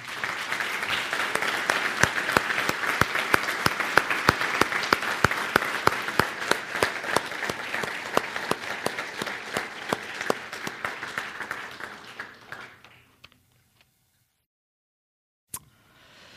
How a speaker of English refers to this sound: Hey, would you just take a moment to give a large, large and, and loud round of applause for motherhood? Would you do that now?